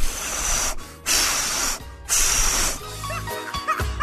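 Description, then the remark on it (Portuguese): Someone blows out a birthday candle: three loud, breathy whooshes of air, each lasting under a second with brief pauses between, followed by a few faint clicks and soft tones. No one speaks. “De novo, soprando a velhinha.”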